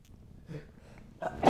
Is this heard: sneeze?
yes